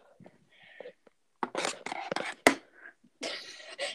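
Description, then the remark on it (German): A blue-and-yellow die tumbles across a tabletop on a plastic mat, a close burst of quick rattling knocks ending in one sharp, loud clack, with soft hissy noise before and after. “Ähm, roll die mal über den Tisch.”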